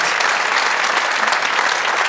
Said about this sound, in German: Ehre, wem Ehre gebührt. Erstmal gibt es einen Applaus für dich.